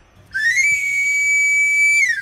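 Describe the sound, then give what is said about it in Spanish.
An itinerant knife sharpener, arriving in a neighbourhood to sharpen knives and scissors, blows a pan pipe whistle: one bright, loud tone that slides up, holds steady for over a second, then slides back down, heard alone over a faint low hum. “Llegando al barrio vecina, afilo cuchillos, tijeras, cuchillas asadas, siempre listo y afilado el afilador.”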